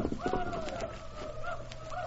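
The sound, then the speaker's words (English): Horses' hooves gallop away in quick, uneven thuds as the horses are sent out of the way, partly masked by wavering voices calling over them. “Go on, Silver. Get the horses out of the way. Go on, boy.”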